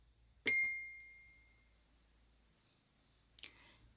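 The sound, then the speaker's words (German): A sharp, high-pitched squeak with a ringing tone fades out over about a second, followed by a second, shorter squeak a few seconds later. No one is talking. “da hat doch was gequietscht. Ich habe es gehört.”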